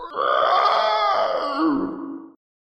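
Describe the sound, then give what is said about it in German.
A voice imitates an owlbear's loud, drawn-out scream, a harsh, strained roar that holds for about two seconds, wavers slightly, then cuts off abruptly. “Und der Eulenbär schreit laut auf,”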